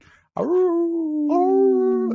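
A puppy lets out a sustained, whining howl, one long wavering note that lifts slightly midway and carries on for nearly two seconds, with no voices.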